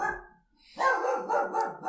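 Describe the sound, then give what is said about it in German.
A dog barks loudly, one bark followed after a short pause by a quick, excited run of repeated barks with no voices. “Ja, da, da rastet selbst der Hund aus.”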